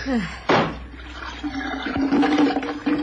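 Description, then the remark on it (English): A sudden splash, then a steady gush of rum glugging out with a hollow, gurgling tone as half of a barrel is emptied into the sea, fairly loud. “We'll empty the contents into the sea and then hmm. ram the bung back home.”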